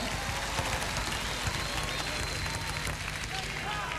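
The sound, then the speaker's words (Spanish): An audience applauding loudly for Dino Gordillo, a dense, steady wash of many hands clapping that holds at an even level for about four seconds, with a faint murmur of crowd voices mixed in. “así lo despedimos con este fuerte y cariñoso aplauso el humor y la simpatía de este hombre que por tantos años nos ha hecho sonreír.”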